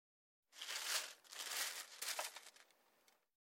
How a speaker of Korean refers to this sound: 쓰레기탑이 워낙 단단하게 쌓여 있어서 비닐 하나 빼는 것도 쉽지 않았지. 호기는 땀까지 뻘뻘 흘려가며 비닐을 잡아당겼어.